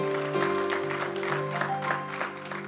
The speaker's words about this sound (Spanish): deles aplauso fuerte a Cristo porque Él es bueno.